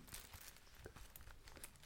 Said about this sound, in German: Ich werfe jetzt mal eine Münze hier live. Moment. ähm, guck mal, was wir im Geldbeutel haben.